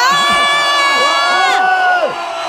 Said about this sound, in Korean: 네, 그렇게 우리는 목이 터져라 방석을 흔들면서 환호성 지르는 걸 몇 번이나 연습하고 리포터 등장신을 겨우 찍을 수 있었습니다.